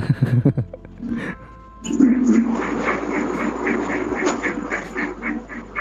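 A loud electric fan kicks in after a brief quieter moment with faint voices, whirring steadily with a rapid, rhythmic pulsing and a harsh, rattling edge.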